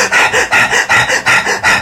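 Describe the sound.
A person demonstrates the rapid, rhythmic panting used while running: about five quick, loud breaths in and out at an even pace, with no talking.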